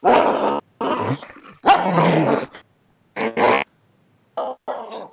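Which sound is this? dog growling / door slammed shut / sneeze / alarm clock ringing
dog growling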